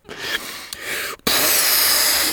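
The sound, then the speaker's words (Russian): Someone blows a balloon up: a breathy puff of air, a brief pause, then a longer, steady rush of hissing breath that runs to the end. No one speaks. “Итак, надуваю.”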